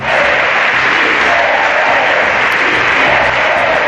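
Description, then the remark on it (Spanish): A large crowd in the Spanish Congress applauds loudly and steadily after a motion of censure is approved and Pedro Sánchez is invested. It is a dense wash of clapping with shouts of "sí se puede" mixed in, holding at full intensity for a few seconds without pause. “Los gritos de si se puede y ese famoso abrazo entre Pedro Sánchez y Pablo Iglesias se llevan un momento histórico.”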